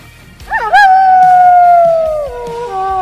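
animal, howl

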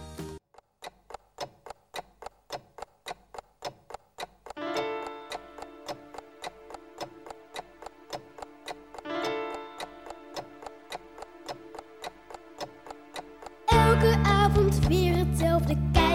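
household object, clock ticking

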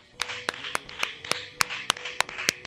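crowd, round of applause

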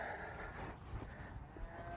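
animal, cattle mooing

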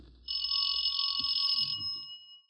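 household object, doorbell ringing

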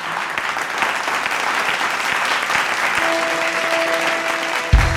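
crowd, audience applauding and cheering

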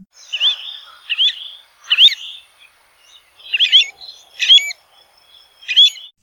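bird, bird call

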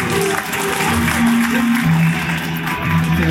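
crowd, audience applause

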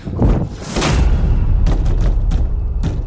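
sound effect, door slamming shut

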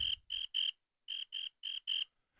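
sound effect, cricket chirping sound effect

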